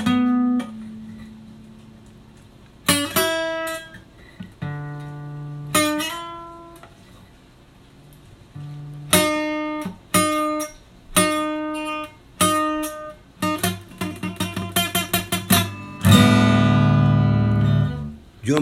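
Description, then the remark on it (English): A guitar's open string is plucked and left to ring, then notes are played over the sound hole with a hammer-on over the sound hole, ending in a quicker cluster of bright plucked tones with no talking. “So the like now the sound hole helps to create a sound, say open string, then over the sound hole, then a hammer over the sound hole.”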